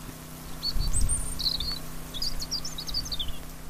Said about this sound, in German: Der Bergsteiger spitzt plötzlich die Ohren. Auf einem Baum sitzt ein Rotkehlchen und der Regen hat den Waldboden schon ein bisschen aufgeweicht.